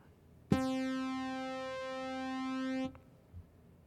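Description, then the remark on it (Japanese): A steady synthesizer sawtooth tone holds one pitch for about two and a half seconds, bright and buzzy with a dense stack of overtones, starting and stopping abruptly with no one talking. “まず、え三角波のこぎり波”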